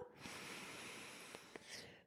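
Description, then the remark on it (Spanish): A steady, airy inhale through the left nostril with the right nostril closed, during alternate-nostril pranayama breathing, lasting about two seconds, fairly quiet, with a hissy breathy texture and a couple of small clicks near the end. “Por ejemplo, tapo el lado derecho de la nariz, inhalo por el lado izquierdo”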